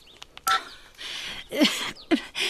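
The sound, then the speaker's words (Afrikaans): A telephone rings with short electronic beeps and warbling tonal bursts mixed with hissy noise, moderately loud, with no one speaking. “Antwoord hy foon.”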